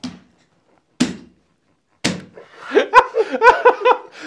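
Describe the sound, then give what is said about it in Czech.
Three hard thumps of a fist banging on a table, spaced about a second apart, followed by bursts of laughter with more sharp knocks mixed in. “to jenom bych chtěl říct, že ty rány, to ti neupadla umělá ruka, to tady mlátíš, mlátíš smíchy do stolu.”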